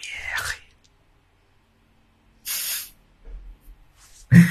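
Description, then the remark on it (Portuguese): Breathy whispering and sharp hissing mouth sounds in short bursts separated by silence, like ASMR; the hisses are bright and airy, with a louder burst at the end. “Vocês escutar enquanto eu sussurro. Sim, você está muito sexy. Eu fazer a SMR.”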